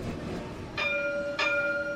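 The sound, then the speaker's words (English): A light rail tram in Israel rumbles past, its bell ringing twice in quick succession with bright, lingering chimes over the low rolling noise of the wheels. “a uh, tourist from Ethiopia went just in the pedestrian street and he saw the light rail and he was running towards this train, crashing into it.”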